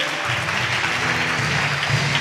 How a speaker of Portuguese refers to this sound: Dá mais um aplauso a ele.